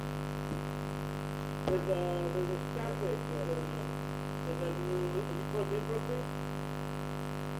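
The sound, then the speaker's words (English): A steady low electrical hum drones throughout with faint static hiss on a phone line, while muffled, warbling voice-like tones drift in and out underneath and a brief click pops early on. “There's a static to the to the to the phone to YouTube.”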